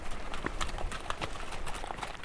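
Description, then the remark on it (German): Horse hooves clip-clop steadily as travelers ride horses up a trail to a glacier, a quick irregular series of hollow knocks over a constant outdoor background hiss. “Ein paar Reisende ersparen sich das und zahlen lieber ein paar Zolles mehr, um auf dem Pferd zum Gletscher zu reiten.”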